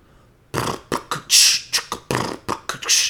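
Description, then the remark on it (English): A voice imitates flatulence with a rapid string of sputtering, breathy raspberry bursts, about ten uneven puffs, loud, with no talking. “Imitate flatulence.”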